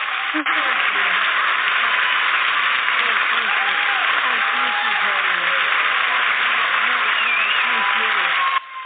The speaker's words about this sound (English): Please, one more round of applause, please.